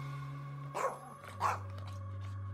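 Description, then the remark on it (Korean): Two sharp barks from a small dog, a Yorkshire Terrier, about half a second apart, barking with bared teeth while looking at the top of a refrigerator in a home in the evening, with a steady low hum running underneath and no one talking. “소리치며 문을 열고 불을 켰더니 그 친구의 개가 우리 집 냉장고 위를 보면서 이빨을 드러내며 짖고 있었다.”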